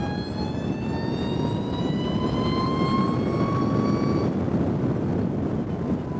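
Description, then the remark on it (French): A 272-horsepower concept car with a single-speed transmission and no gearbox accelerating on an open road, its engine tone climbing steadily in pitch over a loud, constant road rumble; after about four seconds the rising tone drops away, leaving only the steady rushing noise. No voices. “Vous rêvez pas, hein, je, suis bien sur route ouverte avec un concept car.”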